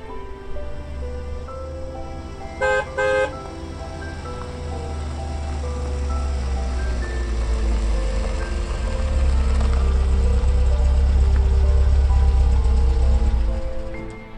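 A car engine rumbles steadily and low throughout, swelling a little louder toward the end, while a car horn gives two short, bright honks in quick succession early on, as a car is driven from a bank to a record shop and stops at its door in the rain.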